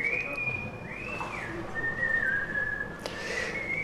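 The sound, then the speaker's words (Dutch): A gondolier by a palace whistles a slow, sustained melody with long held notes and gentle pitch slides, heard clearly over a steady background of ambient outdoor noise. “In Ecce Homo zei Nietzsche, als ik dat even mag vertellen van de gondelier, kan hem ook even laten fluiten en het daarna vertellen.”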